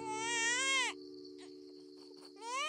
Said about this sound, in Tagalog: Pinilit niyang buhayin ang kapatid ko. Ginawa niya ang lahat. Mahigit apat na oras din ang nakalipas, maya-maya ay narinig na naming umiyak ang kapatid ko.